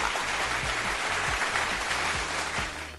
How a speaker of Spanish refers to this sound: Sus aplausos para el chingama.